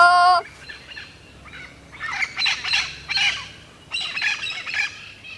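A flock of green parrots passing by squawks in harsh, overlapping bursts, loud, with brief pauses between clusters of raspy calls and no voices.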